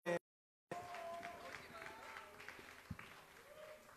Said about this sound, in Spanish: Qué bárbaro. Fuerte, fuerte, fuerte, fuerte el aplauso, señores.